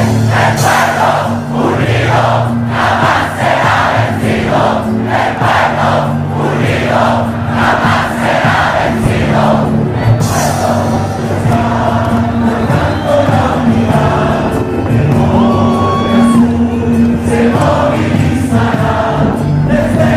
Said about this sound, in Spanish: Todo esto me recuerda a las calles, sobre todo cuando había protestas se escuchaba el coro de la emblemática canción de protesta.